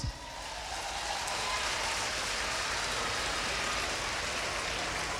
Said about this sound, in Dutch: Kom, geef de Heer een applaus.